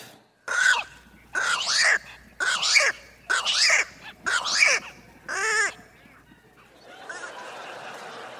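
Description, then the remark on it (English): Bird calls: six loud, raspy squawks in a steady rhythm, then a shorter wavering cry, followed by a fainter, noisy rustle near the end. “just want to say birds are terrible.”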